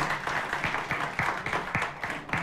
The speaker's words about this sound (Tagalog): Isang malakas na palakpak para sa Panginoon.